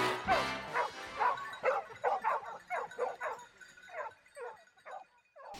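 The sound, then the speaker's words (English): Decoy dogs bark and yip excitedly in a rapid, uneven string of about a dozen sharp, high calls, loud, with no talking. “We uh, went out this morning with Scott with his decoy dogs.”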